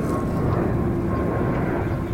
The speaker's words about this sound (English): From up there, it feels like you can almost touch the planes that fly over constantly.